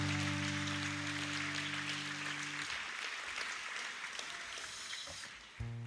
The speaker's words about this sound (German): Und danke dir auch für dieses starke Lobpreisteam. Lass uns in den Lobpreisteam einen richtig starken Applaus geben.